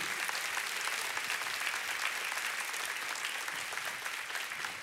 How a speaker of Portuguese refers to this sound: Pode aplaudir o Senhor com alegria.